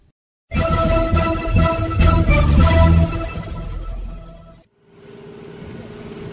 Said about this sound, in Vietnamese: Tiếng máy tàu Tiếng người cười nói Tiếng sột soạt của những giỏ cá nặng được kéo lên xe